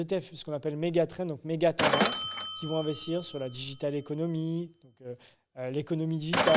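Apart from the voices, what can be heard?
cash register ring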